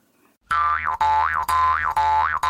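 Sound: jaw harp being played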